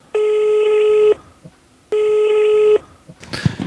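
Two long, steady telephone ringing tones, each about a second, separated by a short pause, followed by a brief click and rustle as if the call connects.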